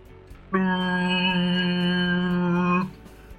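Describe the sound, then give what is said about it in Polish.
A river boat's horn lets out one long, loud, steady blast lasting a couple of seconds, deep and brassy with a rich harmonic drone, then cuts off abruptly. The horn sounds from the south. “I po tym zdaniu słychać syrenę rzeczną.”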